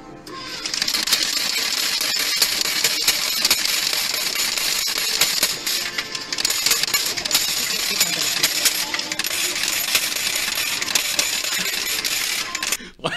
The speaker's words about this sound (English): those coins just keep dropping. That's great.